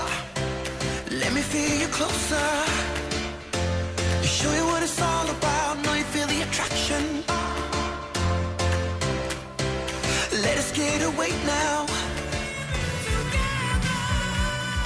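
A full-band pop song plays loudly and steadily, with a punchy beat, bass, layered synths and a sung vocal line running throughout without pause.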